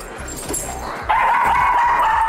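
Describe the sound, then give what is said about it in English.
A Boston Terrier named Pie, a performing dog that appeared with the New York City Ballet, yips, then lets out a loud, sustained high-pitched vocalization that continues to the end, with no talking. “a Boston Terrier who recently pirouetted with the New York City Ballet.”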